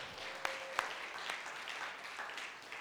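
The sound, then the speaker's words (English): Soft audience applause: a steady, even patter of many hands clapping for about three seconds, with a couple of sharper individual claps near the start and no voices. “Everybody clap.”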